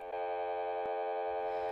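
A number being dialed on a new telephone: a steady, buzzy tone runs throughout, broken by a few brief clicks. It is fairly loud, and no one speaks.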